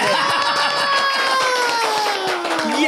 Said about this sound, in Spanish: ¡Aplausos!